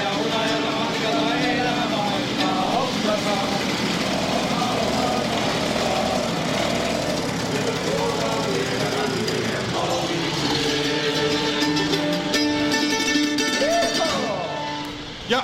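Moped engines of Kopsan mopopojat, the Kopsa singing moped club, run steadily in Kopsa, their buzzing drone rising and falling in pitch as the throttles open and ease off, with a rising whine near the end.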